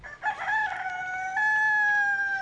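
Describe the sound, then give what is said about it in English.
A rooster crows a single long, drawn-out cock-a-doodle-doo, loud, its strained tone holding steady before trailing off, with no voices present. “the rooster with the cockadoodle doo in the background”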